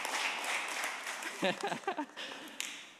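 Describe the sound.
A church audience gives a round of applause for a young drummer who played during worship: steady, dense clapping keeps going throughout, with a voice speaking briefly over it partway through.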